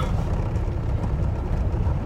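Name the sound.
inside a moving car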